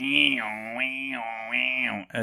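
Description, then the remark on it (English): A person imitates a cicada with a sustained, buzzy droning hum that swells and dips in rhythmic waves for about two seconds before cutting off abruptly. “Is a locust the same thing as a cicada? I don't know. What's a cicada?”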